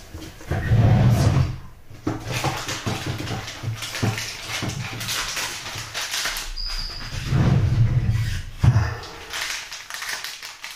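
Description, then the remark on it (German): A pet tomcat knocks and rattles at a cupboard door, giving irregular wooden clatters and two heavier bursts of low thumping. Fairly loud, with no one speaking. “Denkt, denkt man ja jedes Mal, da klopft jemand. Dabei ist es mein Kater.”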